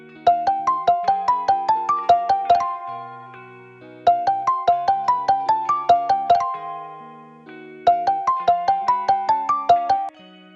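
An outgoing call's ringing tone: a bright, electronic melodic phrase of quick rising notes, repeated three times with short pauses between, clear and steady with no voices.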